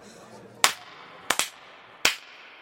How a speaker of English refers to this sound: And when the feasting had finished, the king stood up, bowed to his queen and guests, and then clapped his hands for silence do you want to clap three times with me?